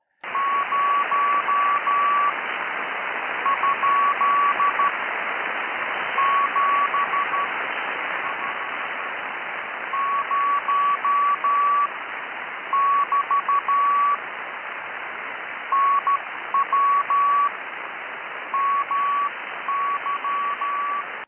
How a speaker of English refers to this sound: Now, listen to this recording of a CW exchange that I heard on 40 meters recently.